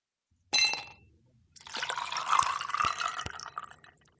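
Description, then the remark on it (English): A short bright clink, then after a brief pause liquid pours steadily into a glass for a few seconds, splashing with a faint rising fill tone, no voices. “And now, let's pour ourselves a conversation.”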